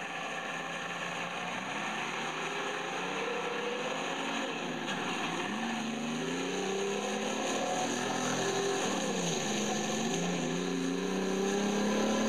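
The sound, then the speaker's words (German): A car engine runs steadily and revs up and down, its pitch rising and falling several times against a constant mechanical drone. No voices are heard. “schaltete den Motor ein.”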